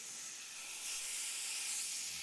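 A steam engine hisses steadily, a bright, airy rush of escaping steam that swells a little louder partway through and holds without pause. No voices are heard.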